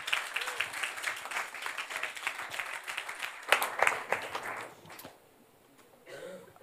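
A burst of steady applause, many hands clapping in a dense, crackly patter that swells briefly near the middle, then fades out, leaving a short quiet moment and a faint murmur at the end.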